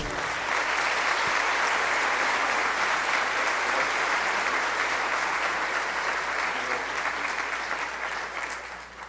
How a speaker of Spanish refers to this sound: Bienvenido, Padre Juan Martín. Un fuerte aplauso, por favor.